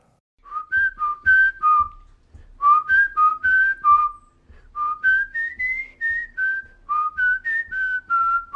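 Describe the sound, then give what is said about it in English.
A bright whistled melody carries a tune in steady phrases over soft low thumps, a multi-track recording in which one man performs every single instrument with his mouth, with no words sung. “So he recorded like a multi-track version of it where he is doing every single instrument himself, with his mouth.”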